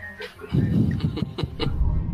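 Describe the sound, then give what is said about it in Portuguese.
A dog barks in a quick series of short yaps, somewhat muffled and off to the side, over a steady murmur of background noise. “Eu tô ouvindo um cachorro e uma TV.”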